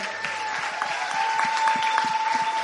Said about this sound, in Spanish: Aplauso para nuestro Rey.